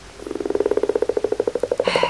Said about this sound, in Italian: torna in silenzio a parte il rumore della pioggia fuori e dalla porta si sente l'intenso gracidare poi John inserirà il gracidare di un rospo fuori dalla porta